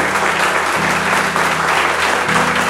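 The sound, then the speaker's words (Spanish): A crowd claps continuously in applause to God during a worship service, a dense, steady wash of many hands, with low sustained musical tones humming underneath and no pause throughout. “Es fuerte si te duelen las manos, aguántate.”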